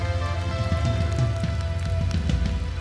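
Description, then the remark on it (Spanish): An audience applauds for Jesus during a sermon in a steady, dense patter of many hands clapping together, with a low sustained hum underneath and no voices over it. “Aplausos a Jesús.”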